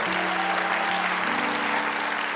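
An audience applauding in a steady, dense wash of clapping that holds at an even level throughout, with a faint sustained low tone underneath and no voices.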